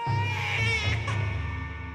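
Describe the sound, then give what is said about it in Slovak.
Children in the Israelite camp in the wilderness wail and sob, a loud, continuous, high-pitched crying that keeps going for the whole moment without any pause or break. “Idem upokojiť deti, aby prestali plakať a budeme čakať na večer.”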